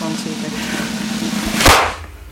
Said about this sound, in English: So I'm going to demonstrate. I, I, did do a very loud noise. So this is the paper banger. Let's see if I can make it. All right, ready? Hang on. Let's see if I can make it really loud.